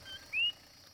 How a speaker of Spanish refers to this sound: En la carretera que pasa por el yunque, escuchamos los coquíes. Son unos sapos típicos de Puerto Rico, que suenan exacto como su nombre. Coquí, coquí.